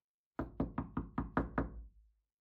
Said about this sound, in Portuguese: Após bater diversas vezes, uma voz de dentro lhe disse para entrar, mas ele não tinha as chaves.